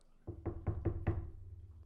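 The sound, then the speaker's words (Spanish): Five quick, evenly spaced solid knocks on a door, each with a low hollow thud, followed by a brief fading resonance. No voices are heard. “les tocan la puerta.”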